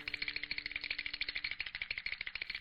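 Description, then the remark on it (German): Skeleton bones of monks rattling as they approach the cathedral in Aachen, heard from far off, in a fast, continuous clatter of dry, hollow clicks, steady and busy for a couple of seconds with no voices. “Als sich die Mönchskelette dem Dom näherten, hörte man ihre Klapper schon von weit her.”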